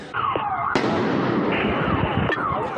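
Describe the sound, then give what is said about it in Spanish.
A car bomb detonation in Ecuador: one sudden, loud blast that rolls off into a long rumbling decay, then a smaller bang, with falling whistle-like tones wavering underneath throughout. “Esto se suma a detonaciones de carros bomba.”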